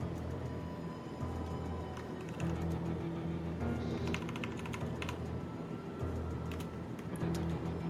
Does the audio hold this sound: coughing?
no